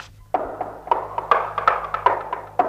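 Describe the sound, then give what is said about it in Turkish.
Rapid, overlapping metallic taps and knocks as several people strike the walls with iron rods at once, testing for a bricked-up door, a dozen or so strikes in quick irregular succession, moderately loud. “Kimin elinde demir çubuk varsa duvarları yoklasın.”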